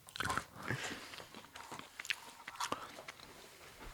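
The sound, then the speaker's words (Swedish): Crisp crunching as someone bites into something they are tasting and chews, with irregular sharp cracks and smacking bursts over about four seconds, fairly quiet overall. “vet om våra lyssnare är att de älskar när, de, när vi provar grejer som de själva inte får prova och när vi smaskar.”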